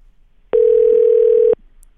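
A single steady telephone ringing tone sounds for about a second, loud, as a call is being placed to a listener, with near silence before and after.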